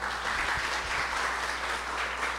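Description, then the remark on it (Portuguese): Steady applause from an audience for Flávia Barros, a dense, even wash of many hands clapping at constant loudness throughout, with no voices rising above it. “Uma salva de palmas para a mãe Flávia.”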